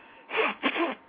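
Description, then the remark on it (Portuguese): A single abrupt sneeze bursts out in two quick explosive parts, with a sharp intake followed by a breathy, noisy release, heard alone. “Saúde.”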